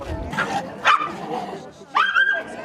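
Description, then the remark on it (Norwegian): A few sharp dog barks and higher yelps ring out in short bursts as dogs move among burned-out houses and cars in the village of Guerrero Grande, with a whining, rising cry near the end over a faint outdoor background. “Noen hunder beveger seg mellom utbrente hus og biler i landsbyen.”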